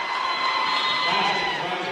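A packed basketball crowd, full both downstairs and upstairs, cheers in a loud, sustained roar of many voices with whoops mixed in after Curry scores for the Bradley Bears to make it 5-0. The roar fills the whole short moment without letting up.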